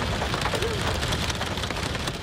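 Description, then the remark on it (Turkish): Heavy rain mixed with hail pours down steadily in Ardahan, a dense, loud hiss with scattered sharp patters of hailstones striking surfaces, continuous throughout. “Kentte hem yağmur hem de dolu etkili oldu.”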